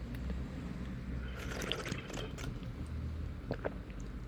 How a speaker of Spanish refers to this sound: Les voy a hacer mi ASMR. Ay, medio hipo. Mi ASMR de yo tomando agüita.